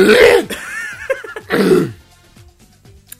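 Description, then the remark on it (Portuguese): Two loud, rough throat-clearing bursts separated by a brief pause, followed by quiet small mouth sounds and near silence. “Espera aí que eu vou tirar o pigarro da garganta.”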